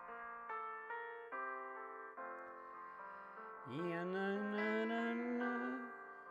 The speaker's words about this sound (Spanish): Mientras que llegan vuestras preguntas, vamos a poner un poquito de música Disney.